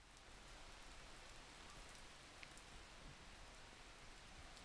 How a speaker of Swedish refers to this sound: Men sen är det lite olika för att ASMR, jag har ju inte fattat att, att till exempel lyssna på regn och sånt är ju en typ av ASMR.